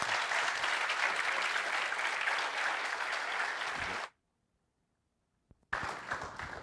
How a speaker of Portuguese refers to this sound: O aplauso é um sinal de aprovação, não é? Mas vocês não estão cansados? Então por que vocês aplaudiram? Tem coisa que é inexplicável, pastor. Tão cansado e tão aplaudindo.